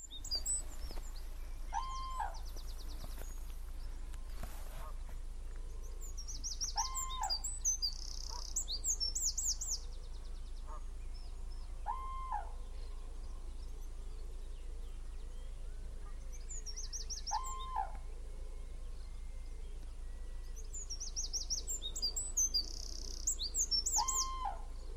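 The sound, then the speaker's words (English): Common cranes trumpet in loud, rattling bugle calls at dawn on the Somerset marshes, repeated in bursts, with smaller birds chirping and a steady low ambient hum. “She's found something really special it's the call of common cranes at dawn.”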